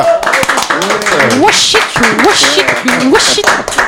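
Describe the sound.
An audience applauds steadily for a few seconds, a dense, loud wash of clapping, while several voices call out and talk over it with rising, animated tones.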